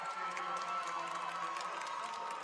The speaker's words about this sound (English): That's where the cheer came from the, the Marian, Marian parents, guess.